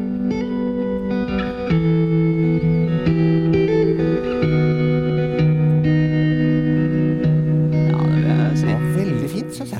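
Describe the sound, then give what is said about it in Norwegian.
The theme music of the Norwegian TV 2 crime series Killergata: a moody instrumental theme with sustained, layered low notes and shimmering effected tones, steady and fairly loud throughout, with a brief swirl of higher sounds near the end. “La oss høre litt på, på uh, vignetten, eller temasangen, litt, så kan jeg, si det noe om denne serien som har premiere i morgen.”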